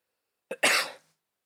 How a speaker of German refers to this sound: Gesundheit. Danke.